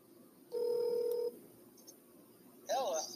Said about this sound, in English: And yeah, he should be here any minute now and uh, just waiting for the phone to dial out.